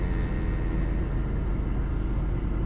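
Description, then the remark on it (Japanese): Steady, low rumbling road and engine noise from inside a car driving home from work, recorded as a test, constant and fairly loud throughout, with no voices or distinct events. “車で帰っていますがこれがどのくらい取れているのかよく分かりませんがまあテストみたいなもんで、えー、やっています”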